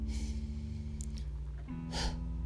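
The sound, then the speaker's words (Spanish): During a guided breathing exercise, a deep breath is drawn in through the nose, then a forceful, airy exhale through the mouth follows a moment later, both clear over a steady, low sustained musical drone. “Vas a inhalar profundo por nariz y vas a exhalar fuerte por boca.”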